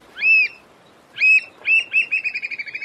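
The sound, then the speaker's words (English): Loud, piercing whistled calls from an American oystercatcher, a large black and white shorebird with a carrot-like beak, starting with separate sharp notes that speed up into a rapid descending series of piping peeps, clear with no talking. “That's the sound of an American oystercatcher a large black and white shorebird with a distinctive beak that looks like a carrot.”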